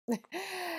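A newborn baby makes a short breathy squeak, then a sustained, fairly high-pitched vocal coo lasting under a second, close to the microphone, with no talking.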